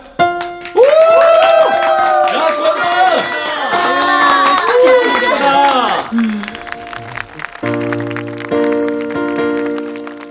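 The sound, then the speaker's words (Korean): Wedding guests clap steadily for several seconds for the bride's entrance, beneath a loud voice and music, then the clapping thins out, leaving sustained musical tones ringing on their own. “오늘의 주인공 신부 입장이 있겠습니다. 큰 박수로 축하해 주세요.”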